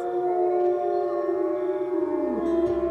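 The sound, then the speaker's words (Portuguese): A pack of wolves howls together in the dark in long, sustained overlapping tones, loud and steady, with one voice sliding downward near the end. No one speaks. “A alcateia esperava-os.”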